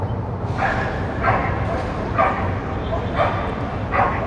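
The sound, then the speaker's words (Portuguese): A dog barks five times at a fairly steady pace in the late afternoon, over a constant low rumble of background noise. “Isso aqui sou eu tentando gravar a locução do episódio no fim da tarde. Aí tem cachorro, tem funcionário da prefeitura cortando árvore, tem moto passando.”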